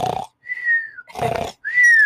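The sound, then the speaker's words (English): A voice imitates two roommates snoring and grunting at each other in their sleep: two rough, snorting grunts alternate with two high, steady whistling exhales, repeating in a loud back-and-forth rhythm like a cartoon snore. “So I'm fucking sleeping, and out of nowhere I'm trying to sleep, and him and my other roommate start playing a perfect tone together, and they're snoring like”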